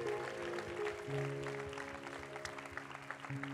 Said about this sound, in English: Come on and give God a big clap off in the praise.